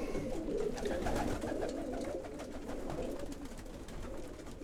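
A pigeon fancier's pigeons coo steadily, several birds layering soft, throaty rolling calls, with a continuous low murmur and no one speaking.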